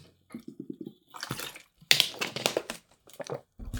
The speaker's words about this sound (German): sorry für diesen kleinen Frosch hier im Hals, ich nehme mal einen Schluck Wasser.